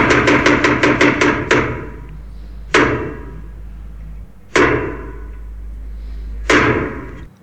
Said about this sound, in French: Ah, qu'est-ce que ça fait longtemps qu'on n'a pas entendu ce jingle quand même.